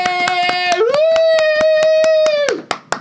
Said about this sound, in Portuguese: Sério, postamos, palmas pra gente. Palmas pra gente.